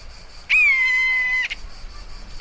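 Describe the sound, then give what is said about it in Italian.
A buzzard, a large dark bird circling overhead, gives one long, drawn-out cry, loud and steady after a brief downward slide, ringing out clearly for about a second over a quiet background. “Si sente un lamento insistente nell'aria. E Manuel solleva lo sguardo. C'è un rapace lassù.”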